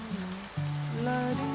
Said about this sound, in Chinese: 下雨了，你还好吗？